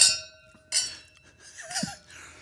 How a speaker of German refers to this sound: So, können wir nochmal kurz anstoßen bitte und dann können wir loslegen.